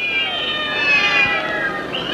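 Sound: cats meowing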